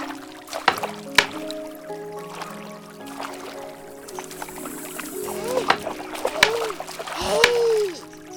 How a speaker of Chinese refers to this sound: 老婆婆一边微笑，一边走到河边，挑选了一个好位置，便蹲在河边的大石头上。拿着竹板，用力拍打着衣服，嘿嘿嘿，洗着脏衣服。